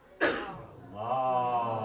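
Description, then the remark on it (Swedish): A single sharp cough, followed by a sustained, droning vocal sound from voices. “Som gäller tidigare föreläsningar, om jag hostar, ni stöttar med salat.”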